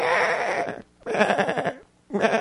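A lamb bleats loudly and close by, three wavering cries in a row with short pauses between them; the last one is cut off. No one speaks.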